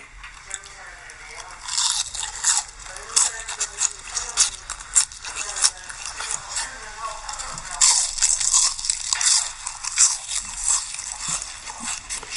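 Close, loud crunching of crispy fried food being bitten and chewed, a steady run of crackly bites and chomps from two eaters with no talking.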